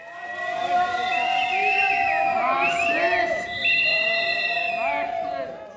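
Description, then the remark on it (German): About 250 demonstrators outside the state parliament of Lower Austria, Austria, at around 8 in the morning whistle loudly and continuously and boo politicians passing by, several shrill whistles overlapping above a steady roar of voices and jeers. The noise stays dense and intense, dipping only briefly partway. “Rund 250 Demonstranten haben sich gegen 8 Uhr morgens vor dem Landtag versammelt.”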